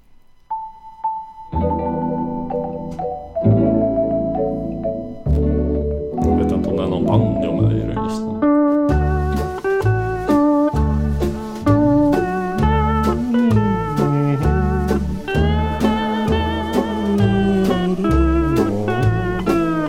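A Hawaiian-style song with Swedish vocals plays loud, with a steady, rhythmic, strummed accompaniment under the singing after a short instrumental opening.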